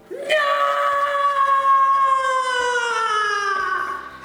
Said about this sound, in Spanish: Bueno, … emite ese grito de horror que no queremos volver a escuchar.